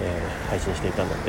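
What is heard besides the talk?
car traffic noise outdoors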